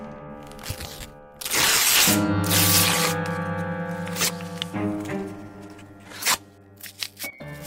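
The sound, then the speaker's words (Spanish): Paper sheets are furiously torn off walls in a long, loud rip, followed by several shorter ripping and crumpling bursts, all over a steady sustained musical backdrop. “Comienza a arrancar las hojas de las paredes con furor.”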